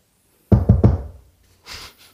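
Three quick, solid knocks on a door ring out, followed after a short pause by a softer shuffling or rustling sound.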